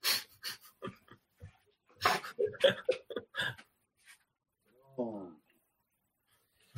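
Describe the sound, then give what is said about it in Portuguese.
An old, sick dog that cannot get up pants and snuffles in quick, breathy bursts, then lets out a single short, high-pitched whimper that trails downward before falling quiet. Fairly soft. “Espera um pouquinho que o cachorro está tendo Vem, vem.”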